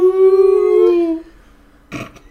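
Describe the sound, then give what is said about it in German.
A person imitates a wolf howl with one long, steady, rising-then-sliding vocal tone lasting over a second, followed by a brief breathy burst after a short pause. “Achtung, jetzt kommt der Spoilerwolf.”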